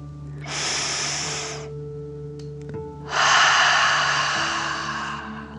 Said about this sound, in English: Breathe in through your nose, filling up your belly, and then out through your mouth, pretending you are breathing fire. Ready? Deep breath in and out.